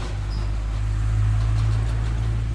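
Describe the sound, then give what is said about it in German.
Steady low rumble of road traffic at a busy outdoor traffic junction on a square in the afternoon, with very many cars. A continuous engine drone with no single car standing out, holding at an even, fairly loud level throughout and with no voices. “Und wie man hören kann, es ist ein ziemlicher Verkehrsknotenpunkt.”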